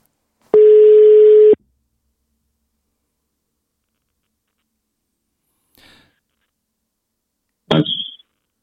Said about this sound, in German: Ich rufe mal an. Jetzt bin ich gespannt. Was geht? Es geht! Jetzt klingelt es bei mir.